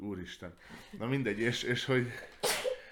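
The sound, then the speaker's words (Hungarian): A single sharp, breathy sneeze bursts out near the end, fairly loud, right after a stretch of conversational talk. “egészségedre.”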